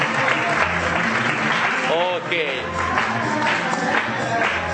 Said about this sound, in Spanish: Dale un fuerte aplauso al tío. a ver si se le quita la timidez.